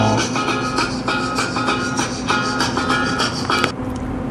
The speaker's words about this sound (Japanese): 若干着信音入りましたけど今なんといいタイミングで愛する妻のジェニファーから電話がかかってきましたね